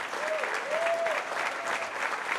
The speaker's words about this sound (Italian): Giuro, funziona! E poi applausi assicurati!